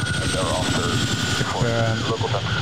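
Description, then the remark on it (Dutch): A Chinook twin-rotor helicopter's steady rotor and engine roar fills the background throughout, a loud continuous drone with a rhythmic thumping pulse, while a voice talks over it. “En dan hoor je dus het geluid van de toren en hoor je de Chinook.”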